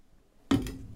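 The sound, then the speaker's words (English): A person takes a sip of water: a brief quiet pause, then a sudden wet slurping swallow that carries on for a moment, fairly loud, with no talking. “I'm going to take a sip of my water here.”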